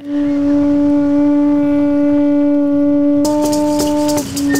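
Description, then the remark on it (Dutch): Peruvian shamans blow a conch shell while predicting that Trump will not win, one long, loud, steady droning note that holds for several seconds, with a bright rattling, shaking sound joining in just before it breaks off. “Dat zijn Peruviaanse shamanen die voorspellen dat Trump niet zal winnen terwijl ze op een zeeschelp blazen.”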